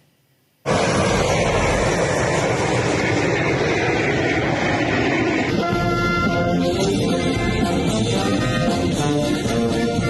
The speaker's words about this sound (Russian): Опытный образец российского импортозамещенного самолета «Суперджет-100» совершил свой первый полет